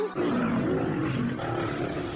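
A lion's roar bursts in and holds as one long, rumbling growl for about two seconds, loud, with no talking over it.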